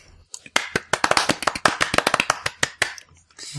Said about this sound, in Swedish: Ja, vi använder den, så då, ak ak um, då applåderar vi dig.